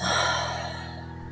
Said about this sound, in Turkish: Tut. Yine ağzından yavaşça boşalt.